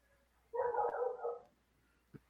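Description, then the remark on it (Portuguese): A dog barks once in a drawn-out, roughly one-second burst over a call participant's unmuted microphone, fairly loud against a quiet background, followed by a brief faint yip a moment later. No one speaks. “É, pessoal do cachorro, muta o microfone.”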